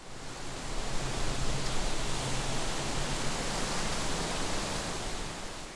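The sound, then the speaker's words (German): A steady, dense hiss of wind rustling through oak leaves, bright and airy with a strong high end, holding at an even level throughout with no voices. “Das Rauschen der Eiche ist vor allem durch seinen ausgeprägten Hochtonbereich zu erkennen.”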